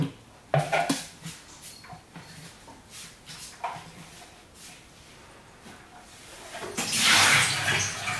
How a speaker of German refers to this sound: So. Wasser ausleeren.